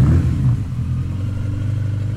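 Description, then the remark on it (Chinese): A motorcycle engine is restarted on a road on Lanyu after goats cross, turning over and settling into a steady low, rumbling idle with a rhythmic mechanical clatter, loud and continuous with no voices. “他们等着山羊慢慢的走，都过了马路，东东才又重新启动了摩托车。”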